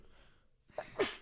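A single sneeze, a quick catch of breath and then a sharp, breathy burst, after a moment of near silence, with no talking.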